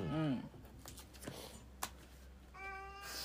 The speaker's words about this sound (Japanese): めちゃめちゃ主張してくるね、猫様。